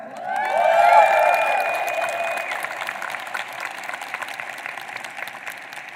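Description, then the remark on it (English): An audience claps and cheers, with a loud whoop and sustained yell at the start, then steady crowd applause that gradually thins and softens toward the end. “Can we hear it for D Rock?”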